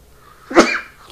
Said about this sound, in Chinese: 不好意思，打个喷嚏。